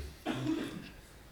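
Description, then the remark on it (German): A single short, muffled cough from a roommate who has been sick for a week, quiet and brief against a faint background hum, with no talking. “Und jemand hustet die ganze Zeit im ja, Hintergrund bei dir.”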